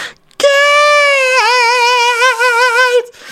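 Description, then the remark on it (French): A single high-pitched glam metal scream by a male metal singer, held for about two and a half seconds, loud, starting steady and then breaking into a wavering vibrato before cutting off. “qui revient à, ses amours glam et nous fait donc ses, plus purs cris de, de glamouze”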